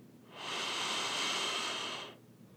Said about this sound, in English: Okay, take a deep breath here. Deep breath in